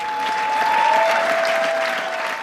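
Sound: theatre audience applause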